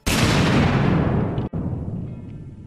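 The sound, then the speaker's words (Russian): A loud explosion bursts out suddenly and rolls into a deep, rumbling decay, briefly cutting out midway before the low boom continues to fade. No voices. “Известные примеры, когда пиво взрывается”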